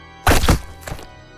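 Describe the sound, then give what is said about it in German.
A loud, wet, heavy impact of a body falling six storeys onto the ground: a deep, booming thud followed by a second, weaker slap, then quiet. No voices. “Lindsay schrie in ihren letzten Sekunden, als sie fiel, wurde aber schnell durch einen lauten, nassen Aufprall zum Schweigen gebracht.”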